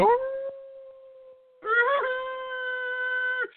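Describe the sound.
A person howls like a dog in two long, steady cries: the first trails off quietly, then a louder, sustained howl rises and holds for about two seconds before cutting off.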